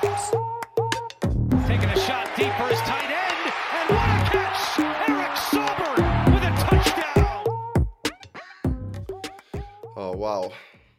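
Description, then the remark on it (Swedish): A short intro jingle plays loudly up front, with punchy rhythmic hits and bright tones layered over a roaring crowd cheer that drops away, leaving a few brief musical stabs at the end. “Det är spännande att få höra den där gingen live som man fick göra nu”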